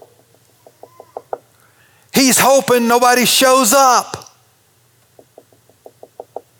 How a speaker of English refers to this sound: And Ananias gets to Judas's house and he knocks boldly on the door.